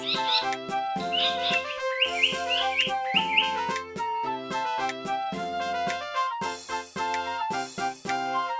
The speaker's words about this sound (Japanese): 鳥たちは歌を歌います